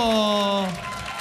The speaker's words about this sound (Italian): Non so se dalla radio si può percepire, però ogni singolo applauso è incredibile.